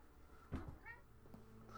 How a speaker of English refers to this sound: Sorry, my cat's meowing at me, and I got distracted. It's okay, Cricket. We love you. We do love you, Cricket.